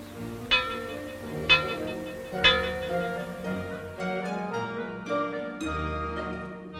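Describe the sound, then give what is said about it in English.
Three metallic gong strikes, sounded as a fallout warning, ring out about a second apart, each with a bright clang and a long shimmering decay. The tones keep resonating and overlapping after the third hit. “In some areas, the warning may be given by means of three gongs, like this.”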